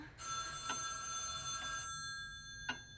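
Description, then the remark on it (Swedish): A telephone bell rings continuously for nearly two seconds, a bright, steady metallic trill that then cuts off, leaving quiet room noise with a faint click near the end. “Telefonen!”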